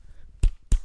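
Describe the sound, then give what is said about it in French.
A voice imitates testicles slapping against buttocks during sex: two sharp slaps about a third of a second apart, fairly loud against a quiet background, with no talking. “c'est le bruit de mes couilles contre tes fesses.”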